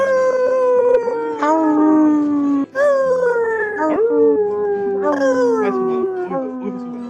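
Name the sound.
wolf howl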